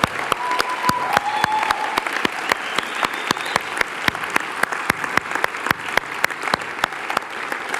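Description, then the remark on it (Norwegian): A church audience at a meeting before a service applauds the worship leaders steadily, a dense wash of many hands clapping with a few sharp individual claps standing out, plus faint whistles or cheers, and no talking over it. “Gi dem en skikkelig klapp.”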